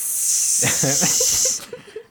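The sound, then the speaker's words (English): A voice imitates a full can of Lysol disinfectant spray being sprayed on a machine and its seat: a steady, bright hiss held for about a second and a half, with a hummed, laughing tone mixed in, then cutting off into faint breaths. “I turn around, this lady behind me has a full can of Lysol spraying the oh machine oh and spraying the seat.”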